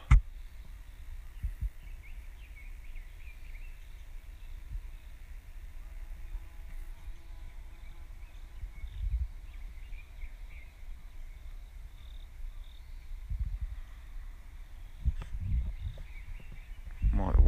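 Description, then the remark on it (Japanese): Faint wild bird calls drift in outdoors, scattered chirps over a low rumbling background of wind and handling noise. “うん、鳥の鳴き声この鳥の名前も分かるといいんだけど聞こえてますでしょうか”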